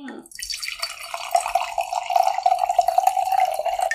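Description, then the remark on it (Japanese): A deep yellow drink pours steadily into a glass, a continuous bubbling trickle whose pitch rises slightly as the glass fills, with no one speaking. “じゃあ入れちゃいましょう。”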